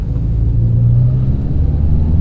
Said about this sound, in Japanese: そう言ってもいられないじゃない こうやってさしっかり車を運転しないといけないわけだから